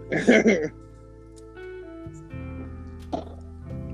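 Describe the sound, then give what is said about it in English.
Wet gulping swallows as someone drinks a beverage in big gulps, with a heavy gulp at the start and another brief one later, separated by quiet pauses and faint background hum. “I love the sound of you drinking. Oh wow! Those big gulps.”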